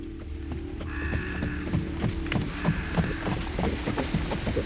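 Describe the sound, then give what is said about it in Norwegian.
Horses pulling sleds approach from the distance, bringing King Halvdan Svarte, a petty king in Norway; a steady rhythm of muffled hoofbeats over a low rumbling background, with faint jingling bell-like tones drifting in and out. “I det fjerne nærmer det seg hester og sleder.”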